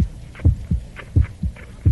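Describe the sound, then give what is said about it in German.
A steady heartbeat thumps in paired low beats, lub-dub, repeating about every half second, prominent over a faint hiss with no one speaking. “Ein Wind heult, würde ich sagen. Jemand läuft, ein Herzschlag.”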